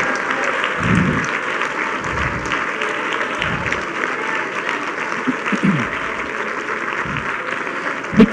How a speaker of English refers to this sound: Clap your hands again and rejoice in his presence, in his knowledge.